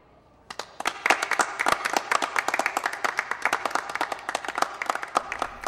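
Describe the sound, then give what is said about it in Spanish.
Scattered applause in a café after a dramatized reading of a new play, people at a few tables clapping unevenly with sharp, irregular claps that start suddenly and continue at moderate loudness without building into a full ovation. “En el café, algunas de las mesas intentan aplaudirle.”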